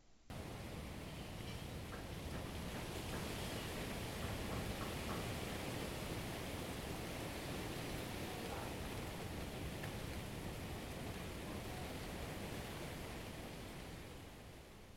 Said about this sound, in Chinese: 刚刚的那一段声音呢，是在台南的稻田录的。这个是在十一月的时候，然后我查了一下，台南十一月的时候大概是二期稻作，秋末冬初的时候收割